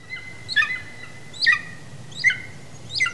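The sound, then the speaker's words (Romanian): A golden eagle calls four times: short, high, yelping notes spaced roughly a second apart, fairly clear against a faint low rumble, with no voices. “Acvila de munte sau pajura, cum este cunoscută în popor, este pasărea care se regăsește pe stema României.”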